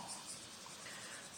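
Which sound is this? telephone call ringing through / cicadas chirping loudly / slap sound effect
cicadas chirping loudly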